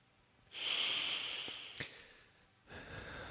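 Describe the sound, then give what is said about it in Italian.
A long, deep inhale of breath, airy and hissing, followed after a short pause by the start of a slow exhale. No talking, just steady breathing. “Respiriamo profondamente e allontaniamo dal nostro cuore qualunque preoccupazione.”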